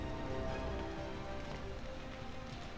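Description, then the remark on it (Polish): Steady rain falls continuously in the mountains, a dense wash of patter on a hard surface with no voices, holding an even level throughout. “Deszcz w górach spowolnił poszukiwania, tymczasowo uziemiając flotę helikopterów ratunkowych”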